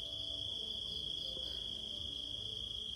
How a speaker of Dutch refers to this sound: Dus waarschijnlijk wat je nu inderdaad hoort hier op de achtergrond. Je hoort krekels, kikkers, andere soort chirpende beestjes.